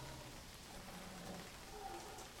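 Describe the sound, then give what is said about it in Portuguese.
Steady rain falls continuously, a soft even hiss with scattered droplets pattering on a surface, fairly quiet, with no voices present. “E ele foi arremessado a metros de distância, no meio da lama que se formava com a chuva.”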